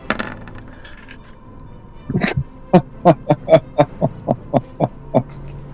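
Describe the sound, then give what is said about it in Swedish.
A twenty-sided die is tossed onto a hard surface: a rattling impact, then about ten crisp clacks as it tumbles and settles, each tap slightly softer, with no voices. “så då ska jag bara slå en tärning? Japp, en 20-tärning.”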